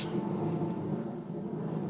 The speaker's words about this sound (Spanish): Dios hablaba por truenos.